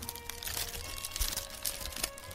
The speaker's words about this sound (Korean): 비닐 펼치는 소리가 좀 작지만 아무튼 비닐을 제가 펼치고 있습니다.